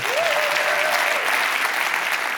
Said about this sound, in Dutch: En geef hem een warm applaus.